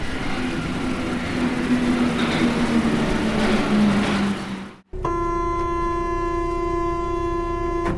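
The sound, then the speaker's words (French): Paris metro train ambience, riding the metro from Gare du Nord to Radio France: a loud, steady rumble with a motor whine sliding downward as the train slows, then an abrupt cut to a sustained, buzzing electrical hum, with no talking. “une fois arrivé gare du Nord, bah, forcément pour aller jusqu'à Radio France, il faut prendre le métro et je vais vous laisser un petit peu avec 2-3 bruits de métro pour vous plonger dans l'ambiance.”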